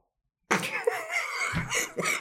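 After a moment of silence, someone who has just been laughing breaks into a harsh, raspy coughing fit, with a few strong bursts running together for a couple of seconds.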